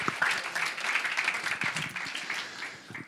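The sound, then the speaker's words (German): An audience applauds steadily, a dense crackle of many hands clapping at once, sustained for a few seconds with no talking over it. “Also nochmal einen herzlichen Applaus.”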